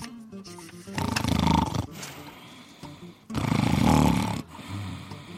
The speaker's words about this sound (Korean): 아, 아, 아, 여보, 여보, 또코 골잖아. 아, 여보, 여보, 여보.